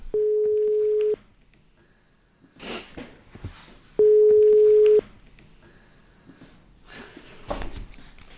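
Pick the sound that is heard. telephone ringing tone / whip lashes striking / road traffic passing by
telephone ringing tone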